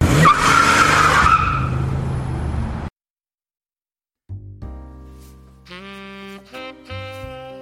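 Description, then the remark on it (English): A car peels out with screeching tires and a roaring engine for about three seconds, loud, then cuts to silence before a short burst of music. “They followed me out, firing their pistols willy nilly as I hopped into my car and drove away.”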